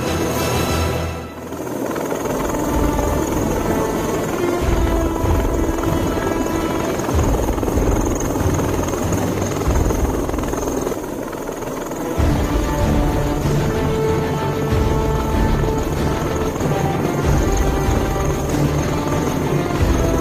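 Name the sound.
helicopter rotor noise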